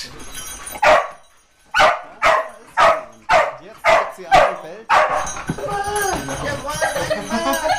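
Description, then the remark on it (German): A dog that has just found a hidden person climbs onto a sofa and barks loudly, about seven sharp barks in a steady rhythm, followed by a person talking. “Sie ist aufs Sofa geklettert und hat ganz laut gebellt.”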